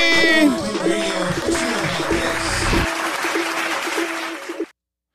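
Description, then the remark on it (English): A steady burst of crowd applause, dense overlapping clapping that holds for about five seconds over a faint tonal backing, then cuts off abruptly into silence. “Round of applause.”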